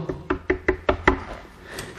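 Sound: knocking on a door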